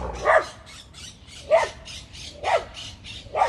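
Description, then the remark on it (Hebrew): Dogs bark excitedly in short repeated bursts, about one bark per second, moderately loud, with no talking. “הכלבים נכנסים פה לאקסטזה.”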